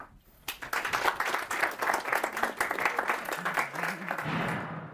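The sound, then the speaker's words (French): On the live France 5 show La Grande Librairie, an audience bursts into sustained applause after a poem reading, many hands clapping in a dense, steady patter that stays loud for several seconds before fading, with a faint murmur of voices underneath. “Franchement, nous aussi, on peut applaudir quand même.”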